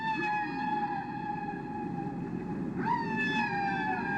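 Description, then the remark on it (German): A male humpback whale's mating song: long, sustained tonal calls with rich harmonics built from repeated basic rhythms, holding steady then sweeping upward midway before gliding down again, melodic and continuous over a low rumbling background. “Buckelwalen, die haben lange Gesänge äh, und wenn sie also von den Winterquartieren kommen zur Paarung, äh, haben die Männchen lange Gesänge, die aus Grundrhythmen bestehen, die wiederholt werden, aber es klingt eigentlich sehr melodiös alles.”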